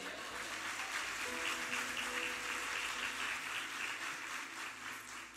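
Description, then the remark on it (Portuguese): Sustained applause from a crowd glorifying God, a dense steady wash of many hands clapping at fairly even loudness for several seconds, with faint murmuring voices beneath it. “Você pode glorificar Deus com a salma de palmas.”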